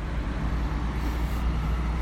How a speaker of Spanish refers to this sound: Mira, ya va un camión.